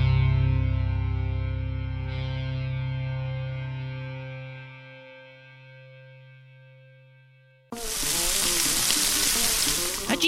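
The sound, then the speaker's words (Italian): A sustained, droning electronic tone slowly fades away, then abruptly gives way to a loud, steady hiss and crackle of beef sausage sizzling on a barbecue for the last few seconds. “Sul barbeculo sto a cucinare la sarciccia.”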